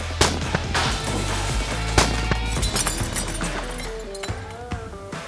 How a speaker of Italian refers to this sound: E così sì, questa adesso sembra una scena da film, però lattine, bottiglie, pezzi di legno, beh, tipo per fare imparare a prendere la mira, così e si spara.